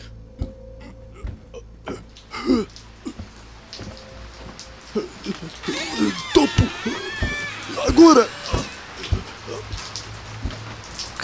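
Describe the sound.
Steady rain patters on a hard surface in a dense spray of drops, with occasional creaks and a voice briefly speaking over it midway.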